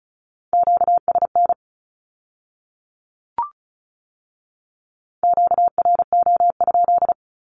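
Rapid Morse code Q-code beeps sent at 35 words per minute in a steady mid-pitched tone, in two short bursts separated by a pause of silence broken only by a single soft click. No voices.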